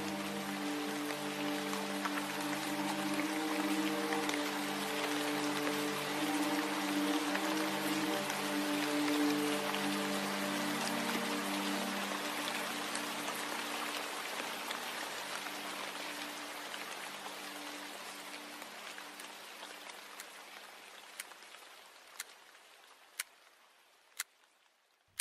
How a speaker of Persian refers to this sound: بارون میباره